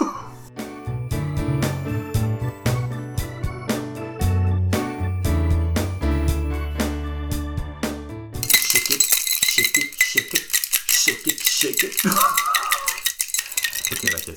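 A cocktail, the third one, a Millionär, being mixed and poured into the last glass: after a stretch of music, steady rattling and clinking of ice and glassware takes over, busy and fairly loud, with scattered sharp chinks and no talking.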